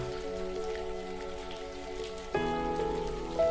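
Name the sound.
rain falling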